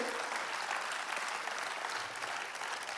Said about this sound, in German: Und lasst diesen Leuten einen großen Applaus geben, weil ähm, sie sind immer froh, wenn ich in den Urlaub gehe.